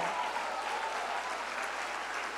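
An audience applauds in praise of God, a dense wash of many hands clapping at an even, sustained loudness with no voices rising above it.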